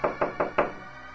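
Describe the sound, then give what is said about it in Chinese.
Four quick, evenly spaced knocks by a servant on a shoemaker's door, each a sharp thud with a short ring, followed by a brief fade into quiet. No voices are heard. “西门正在责备年轻人的时候，忽然听到有人敲门。”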